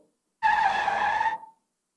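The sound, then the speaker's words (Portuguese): A loud, high-pitched squeal of car brakes skidding, lasting about a second and cutting off abruptly, with no voices, like a classic screeching-tire sound effect. “Agora, meus amigos, nós vamos agora dar um freio.”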